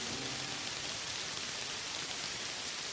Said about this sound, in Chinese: 这场大雨整整下了四十天，世上一切的生物都掩埋在大海里面。而四十天之后，雨终于停了。